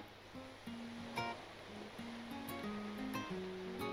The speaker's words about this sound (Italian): Il ragazzo guardò il cielo, dando pace alla sua chitarra ed al mare le onde incostanti si placarono.